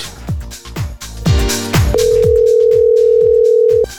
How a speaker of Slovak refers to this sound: Alex, dvihni telefón, idem ťa vytáčať.